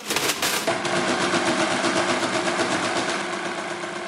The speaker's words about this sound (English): And what happens is the numbers on these calculators just keep rolling over and over and over. And what happens is that it gets into an infinite loop. And over. And it will never stop. And uh, I guess it heats up, so eventually it would catch fire.